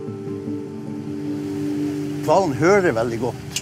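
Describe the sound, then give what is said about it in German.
Sea wash and a steady, low droning engine hum aboard a converted fishing trawler carrying nearly 50 tourists whale watching in the Norwegian Sea off Andenes; after a couple of seconds a person begins talking over the noise. “Knapp 50 Touristen an Bord des umgebauten Fischtrawlers.”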